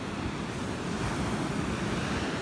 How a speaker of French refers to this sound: il y a des grosses grosses vagues.